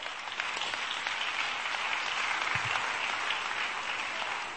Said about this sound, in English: clap, clap.